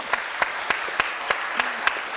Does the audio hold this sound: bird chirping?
no